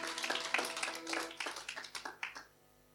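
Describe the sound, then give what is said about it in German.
An audience applauds the band, a dense patter of many hands clapping at moderate volume with a few sharper claps standing out, then tapering off quickly near the end. “Herzlichen Dank, liebe Band, einen kräftigen Applaus”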